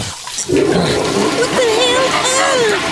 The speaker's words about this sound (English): The water's freezing all of a sudden. Who flushed the toilet?